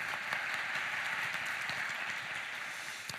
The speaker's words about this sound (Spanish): Un aplauso para ella.